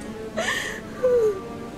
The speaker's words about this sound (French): Je suis prise au piège. Les larmes coulent sur mes joues. Je m'effondre par terre.